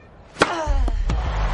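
A single sharp crack of John McEnroe's tennis racket striking the ball on a serve in a match against Borg, with a brief ringing tone trailing off, then two softer knocks over a steady low rumble.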